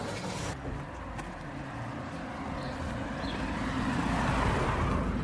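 A small yellow postal car drives past, its engine hum and tyre rumble steadily swelling louder over a few seconds, with no voices.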